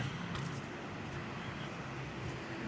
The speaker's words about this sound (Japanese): まあ、結構車の音とかそういうのがかなり入って聞き苦しいかもしれないですけどもまあ、臨場感という感じでそんな感じでお届けしようかと思ってますね。